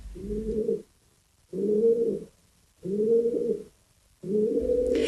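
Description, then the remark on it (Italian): Four drawn-out, throaty coos from pigeons in a square in Paris repeat at a steady rhythm with short pauses between, fairly loud, over a faint low background hum. “realizza un documentario di 20 minuti proprio sui piccioni quelli che a Parigi popolano con un certo fastidio da parte degli umani ogni piccolo spazio, ogni giardinetto della città.”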